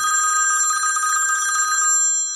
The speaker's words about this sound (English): Oh, look! We've got a phone call. Who could it be?